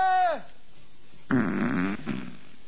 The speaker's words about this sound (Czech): teď jste nám slíbil, že tady nebudete dneska prdět. To je smrtící koktejl. Není. To byl opravdu smrtící koktejl, co jste tady předvedl. Fuj.